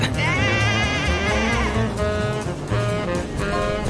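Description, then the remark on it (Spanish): A sheep bleats in wavering, drawn-out cries, loud, over a steady rumbling, engine-like background noise. “¿Una oveja? ¿Pero qué?”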